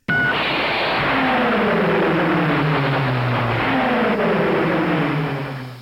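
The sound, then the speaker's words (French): A loud, continuous car engine roars for several seconds as the car accelerates with a turbo boost, its droning tone gliding steadily lower over a dense rushing noise, with no one speaking. “Et surtout, surtout, nous avons le turbobus qui permet non seulement de, prendre des accélérations de malade, mais surtout de pouvoir sauter.”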